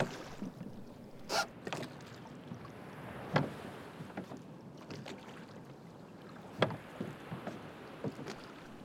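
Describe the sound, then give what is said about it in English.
A rowing boat, Stubb's boat, pulls up alongside Starbuck's boat, with oars splashing and knocking in an irregular rhythm, a few sharper strokes standing out over a steady soft wash of water. No one speaks. “Stubbs' boat pulls up along Starbucks.”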